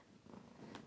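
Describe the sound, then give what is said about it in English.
A cat purring softly and steadily in the background, a low continuous rumble with a faint pulsing texture, no voices over it. “Oh, if you hear the cat, uh, something strange in the background, it's just the cat who wants to spend quality time all of a sudden.”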